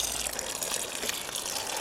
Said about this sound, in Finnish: Nyt kokeillaan tarkkuutta, että isosta kannusta tähän kasteluraan. Aika hyvin se onnistuu.